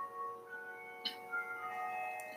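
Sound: church bells ringing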